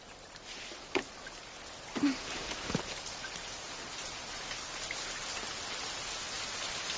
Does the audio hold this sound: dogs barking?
no